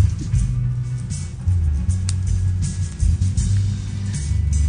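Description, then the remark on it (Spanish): Steady low engine rumble and road drone from inside a moving car, heard over a phone line, with faint hiss and brief clicks on top, continuous throughout and no voices. “Eh, eh, eh, él viene en camino, se, puede ver que viene en, el, auto, entonces de pronto vamos a tener a lo mejor un poco de, de alteraciones en la comunicación, seguramente va a ir y a regresar la señal”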